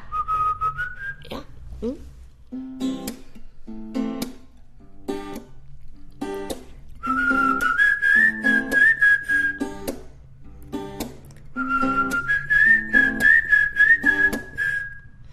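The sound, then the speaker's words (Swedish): A person whistles a tune: a short rising phrase, then two longer, wavering high-pitched passages, fairly loud, alongside a steady rhythm of sharp clicking beats. “Kan man missla här?”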